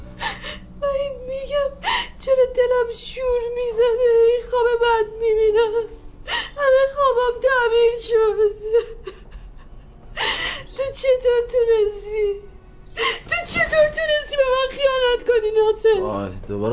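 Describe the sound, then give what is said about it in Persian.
A woman whimpers and cries in long, wavering, high-pitched moans, broken every few seconds by sharp, breathy gasps as she catches her breath. “چرا داری گریه میکنی این وقت”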